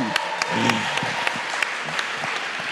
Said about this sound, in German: Und dir vielen Dank fürs Übersetzen. Auch ihr dürft ihr einen sehr herzlichen Applaus geben.